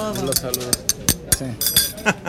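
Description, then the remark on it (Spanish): Several sharp metallic clinks of cutlery against dishes ring out at irregular moments, fairly bright, while people talk indistinctly underneath. “Que se oigan los ruidos de los cubiertos.”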